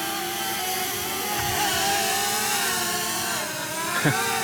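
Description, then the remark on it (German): A small remote-controlled drone's propellers buzz steadily, a high, whiny motor drone whose pitch wavers slightly as it hovers and shifts while being steered up, left and right with a remote control, with no voices present. “wenn ich den rauf tue, dann geht sie rauf. Oder wenn ich da links drücke, fliegt sie links oder rechts”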